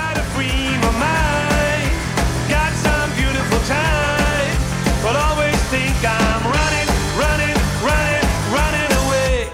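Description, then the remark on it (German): A pop song plays loud on Radio Regenbogen, a sung melody riding over a steady driving beat and full band accompaniment, continuing without a break throughout. “Ja, und auf diesem Album ist auch der Song drauf, den wir jetzt kurz hören.”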